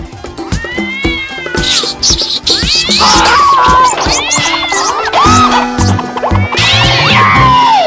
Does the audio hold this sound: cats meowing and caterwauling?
yes